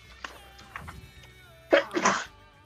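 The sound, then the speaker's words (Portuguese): A sneeze, caused by allergy, bursts out loud near the end, a quick sharp intake followed by a forceful explosive release; faint background hum and a few soft clicks precede it. “Saúde? Desculpa.”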